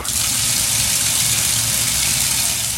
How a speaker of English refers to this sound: I went to the bathroom and started the shower.